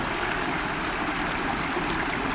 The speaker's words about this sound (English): I'm now by the River Frome in Gloucestershire in England. I found a, a tiny, windsy waterfall at the river. I'm just standing here listening.